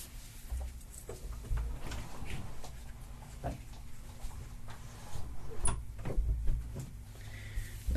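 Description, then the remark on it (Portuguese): A door is handled and opened to let a cat through, with a scattering of soft clicks, knocks and a couple of low thumps over a quiet hum, no one speaking. “Espera só abrir a porta pro, pro gatinho pai.”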